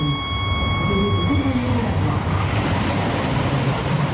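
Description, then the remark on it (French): A roller coaster train restarts with a steady, loud mechanical rumble and clatter, while a high electric whine holds through the first second and a half and then fades into the rolling noise. “Attention, le train va redémarrer.”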